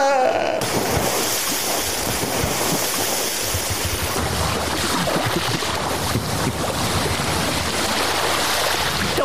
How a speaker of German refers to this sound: Nein, der hat zweimal so richtig Platsch gemacht.